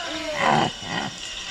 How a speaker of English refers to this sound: bear, bear.